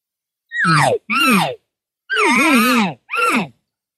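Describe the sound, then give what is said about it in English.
A person vocally imitates an elk cow's rapid contact buzz, an alarm call that tells elk to gather together: four loud, nasal calls in quick succession, each sliding downward in pitch, with brief pauses between them. “it denotes an alarm and and you'll hear if if if a cow is uh, has other cows around or a bull doesn't matter, and there's an issue, and she goes to that contact buzz, and there's something wrong, you'll hear her do this.”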